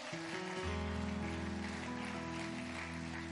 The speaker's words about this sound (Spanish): Y llegó el momento más esperado. Ahora los dejamos con la palabra de Dios. Dale un fuerte aplauso a nuestro Dios, por favor.